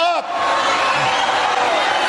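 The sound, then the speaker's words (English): A large crowd at a rally yells and shouts at full volume, many voices overlapping into a dense, continuous roar that holds steady for the whole moment. “Listen to the crowd to i'm saying hold up because the crowd i think is yelling at the veteran”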